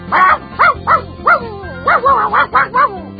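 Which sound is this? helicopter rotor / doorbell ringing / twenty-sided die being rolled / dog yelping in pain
dog yelping in pain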